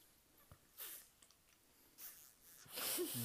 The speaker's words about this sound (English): Juul ASMR? I. I guess so. I, doesn't it sound just like it? Mm, yeah, but you more like the crackly sound. You ever seen the crackles? I mean, I think you can pick it up.